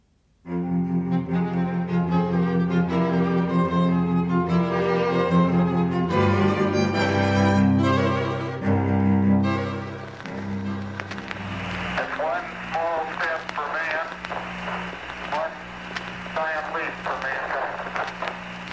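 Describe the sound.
An original Edison cylinder phonograph, over a hundred years old, plays a recording steadily and fairly loud: sustained, tonal music-like sounds at first, then a hissier, voice-like passage with a constant background noise.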